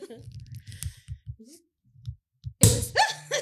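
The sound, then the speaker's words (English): A single loud, sharp pop of the cork from a bottle of Chandon Brut sparkling wine, made in California, bursts out after some quiet talking, followed right away by voices laughing and exclaiming. “My bubbly is only matched by the bubbles in this bottle. Pop it, bitch.”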